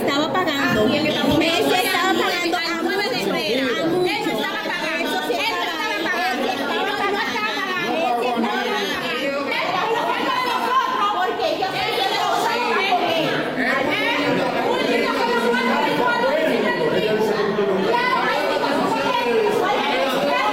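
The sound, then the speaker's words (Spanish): A crowd of dozens of people shouts and talks over one another at the prosecutor's office (Fiscalía) of Monteplata, demanding their money back, in a loud, continuous commotion, dense and unbroken for the whole stretch, with agitated overlapping yelling. “Ese es el lío que se armó justamente en la Fiscalía de Monteplata, ahí donde una persona dice que le estaba pagando, donde decenas de personas decían que le busquen su dinero.”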